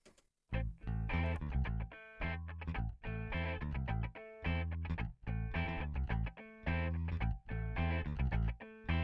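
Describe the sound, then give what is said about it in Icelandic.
A song plays loudly, a dense, distorted-sounding band mix with a steady, pulsing rhythm that drives forward in repeated bursts, with no talking over it. “Sérsta lag í heimapartíinu Í heimapartíinu, bæng, bæng, bæng, bæng Heyrim þetta”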